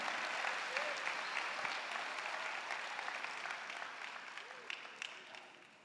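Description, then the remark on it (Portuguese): Sustained applause from an audience, a dense wash of many hands clapping at once, steady and full before easing slightly toward the end, with faint voices mixed in. “Glória a Deus, aplauda mais forte.”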